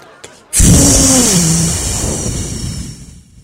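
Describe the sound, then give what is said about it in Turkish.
A sudden, loud gust of breath blasts into the microphone, a rough roaring rush of air that lasts about three seconds, slowly fading, with a faint wavering tone inside it. “Beton ormana giden halkımızın trafik çilesine isyan için üflemeye var mısın …? Varım. Üfle ….”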